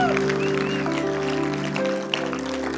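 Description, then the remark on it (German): A crowd applauds steadily for a few seconds for people who have just prayed for the first time, the clapping spread evenly under sustained, held keyboard chords that ring throughout. “Lass uns den Applaus geben.”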